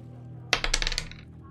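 A die clatters across a hard tabletop in a quick burst of hard rattling clicks, bouncing several times and settling within about half a second, landing on a six. It sounds fairly loud, with no talking.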